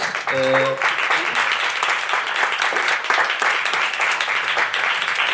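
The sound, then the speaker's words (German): A crowd breaks into sustained applause, dense clapping filling the whole stretch at steady volume, with a brief tonal voice-like sound at the very start before the clapping takes over. “Dafür möchte ich mal kurz einen Applaus.”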